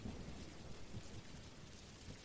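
Steady rain falls in a dense, continuous hiss, with soft low rumbles and patter underneath and no voices. The level holds even and fairly quiet throughout.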